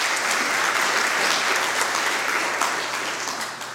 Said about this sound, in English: Clap for that, for sure.